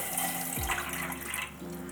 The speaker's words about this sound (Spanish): Entonces primero vamos a encender la estufa y según este tutorial había que agregar el agua primero.